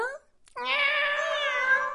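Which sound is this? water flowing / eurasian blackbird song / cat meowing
cat meowing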